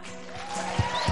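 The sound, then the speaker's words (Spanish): Crowd applause offered to God fills the short clip, a steady wash of clapping with a couple of heavier low thumps near the end and a faint rising tone running underneath. “Quiere darle un aplauso a su papá.”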